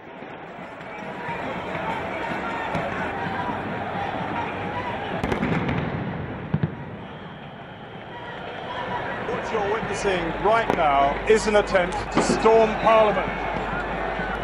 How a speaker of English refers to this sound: You can hear the uh, stun grenades going off. And it's going off on the right-hand side over there of the, at the uh, mezzanine area just above Parliament. And you can hear stun grenades and tear gas has been fired